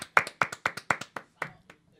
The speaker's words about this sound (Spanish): Un aplauso para Yari, que no estuvo aquí.